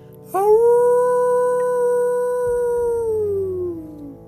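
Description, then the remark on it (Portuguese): A single long, mournful howl rises sharply, holds a steady wavering tone for several seconds, then slowly slides downward and fades. Loud, with no one speaking. “Ouviu-se um uivo longo estarrecedor”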